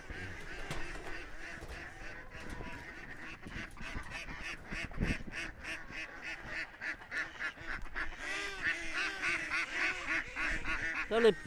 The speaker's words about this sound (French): les, petites, là, c'est des sarcelles qu'on appelle ça. Les petites sarcelles, ça siffle. Mais là, on les entend pas siffler, là.